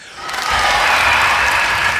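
A short burst of applause from a small group, dense overlapping clapping that swells in quickly and holds steady and fairly loud for about two seconds, with no one speaking.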